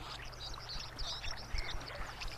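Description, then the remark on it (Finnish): A white-throated dipper sings high, scratchy warbling phrases in short bursts over the steady roar of a rushing stream, the water noise filling the background throughout. “Viikon luontoääni: Koskikara”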